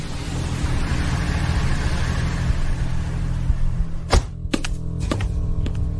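A car's steady engine rumble fills the first few seconds as the driver returns home, then a handful of sharp mechanical clicks and thunks follow as the car is parked and settles, with no one talking.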